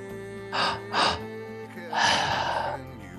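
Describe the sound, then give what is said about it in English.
Loud breathing during a deep-breathing exercise: two quick, airy inhalations followed by a longer, deeper breath, over a faint, steady background hum. “Nowhere to be, nothing to do, total focus for the next 40 minutes or so of deep breathing.”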